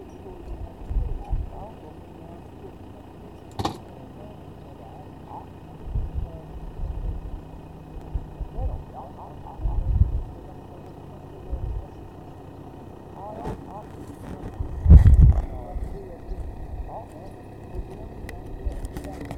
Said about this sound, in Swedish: Nu kommer en bil.